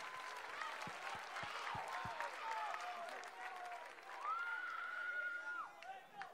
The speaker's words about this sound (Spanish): Apláudale, apláudale.